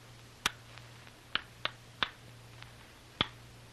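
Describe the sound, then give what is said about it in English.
Five sharp, hard raps of a code signal tapped on the rock door of a cave in an uneven coded pattern: one, a pause, three quick knocks, then a final knock, over a faint low hum. “During a lull in the noise, the code signal is tapped out on the rock door of the cave.”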